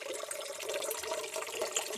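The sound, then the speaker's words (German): A steady stream of water pours slowly from a watering can into a bowl, a continuous bright splashing and trickling that holds even throughout, moderately loud with no talking. “Diese Gießkanne gießt sehr langsam.”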